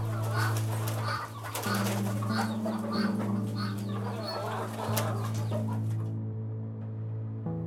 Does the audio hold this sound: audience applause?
no